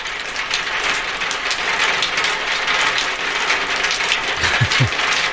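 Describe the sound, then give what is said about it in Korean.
Heavy rain pounds a tin roof in a dense, unbroken metallic rattle that stays loud and steady throughout, with a couple of low thuds near the end and no voices. “이게요, 그 함석, 그 양철 지붕 위에 비가 세차게 떨어지는 소리입니다.”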